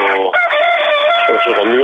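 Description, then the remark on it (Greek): A rooster crows loudly, one long drawn-out call with a strained, wavering pitch that fills the whole moment, with no other sounds around it. “έχετε όμως, συντροφιά τα κοκόρια.”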